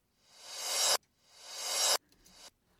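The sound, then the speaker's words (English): A short reversed CD transition effect played on its own with its chamber reverb turned off: two hissy, bright noise swells build up and cut off sharply, followed by a few faint crackly blips. The sound is dry, with no reverb tail. “So let's just turn the verb off.”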